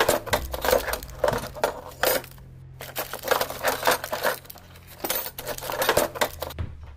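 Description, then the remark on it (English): Someone rummages through kitchen drawers: a busy, continuous clatter of metal utensils and small objects being shuffled and knocked together, in bursts with brief pauses, over a low steady hum. “Lee opened the kitchen drawers and quickly started rummaging through them.”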